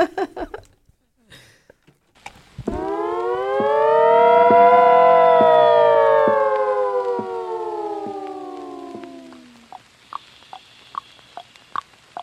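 A spooky Halloween-style song intro opens with an eerie, siren-like wail that swells loudly and slowly fades over several seconds, followed by a run of sharp, evenly spaced taps.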